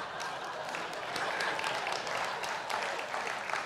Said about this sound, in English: You can tell the, the women are the ones clapping,